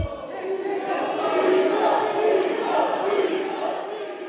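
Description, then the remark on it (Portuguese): Members of Brazil's Congress shouting together at the opening session attended by President Bolsonaro, opposition members calling him genocidal and fascist while his allies shout "mito"; a dense, loud roar of many voices that swells and surges in waves and never drops into quiet. “Antes de começar a sessão, parlamentares de oposição chamaram Bolsonaro de genocida e fascista. Já aliados do presidente gritaram mito.”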